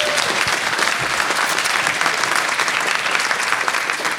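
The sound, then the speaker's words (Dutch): Steady, dense audience applause for the guests, many hands clapping at once, a loud continuous crackle that holds evenly for the whole stretch without fading. “Eh, mogen wij een groot applaus voor onze gasten van de Preppark Podcast Ochtend in Prepparkland,”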